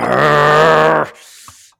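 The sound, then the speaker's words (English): A person growls like a dog to communicate with a dog, one loud, steady, low-pitched rumble lasting about a second, followed by a brief quiet breath. “Sometimes I make growling noises.”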